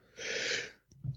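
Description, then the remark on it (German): A single sneeze bursts out as a short, loud, hissing blast, followed by a quieter breathy snuffle afterward. “Sorry, ähm, Gesundheit.”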